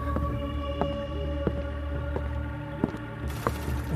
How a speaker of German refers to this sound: Boah, krass, hey dunkler Gang. Das sieht hier und hört sich an wie so ein geheimes Labor.